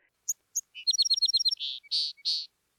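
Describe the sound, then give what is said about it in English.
A small bird tweets: a couple of sharp high chips, a quick rapid trill of chirps, then several longer buzzy notes, clear against silence with no talking. “Little Bird flew ahead of the women into the tomb and back out again, tweeting in surprise.”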